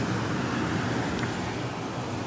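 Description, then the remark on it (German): A steady, powerful rush of water pouring over a small weir on the Pader river beside a park, a dense unbroken roar filling the whole clip at constant loudness, with no voices. “Man hört es auch ganz mächtig rauschen.”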